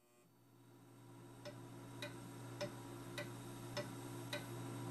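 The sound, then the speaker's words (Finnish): Steady ticking of an old grandfather clock, sharp clicks spaced about every half second, over a low constant hum with no voices. “Mummolasta muistuttaa vain vanha kaappikello ja sohva, jossa olen lapsena nukkunut.”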